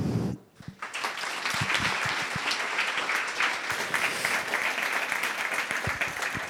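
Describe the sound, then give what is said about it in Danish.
An audience bursts into applause after a brief pause to welcome two authors, a dense, steady wash of many hands clapping that holds strong and even for several seconds with no voices over it. “Tag rigtig godt imod dem begge to.”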